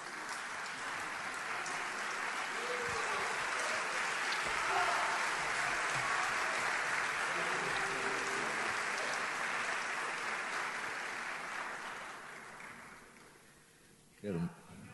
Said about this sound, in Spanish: Te queremos aplaudir, por favor.